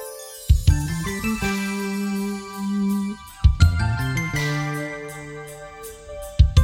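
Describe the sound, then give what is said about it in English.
A pop song's instrumental opening plays with sustained synth chords, sparkling chime-like tones and crisp, regular hi-hat ticks, building over a few seconds with no voices. “This is a great tune from …. This is …, and this may have a short intro.”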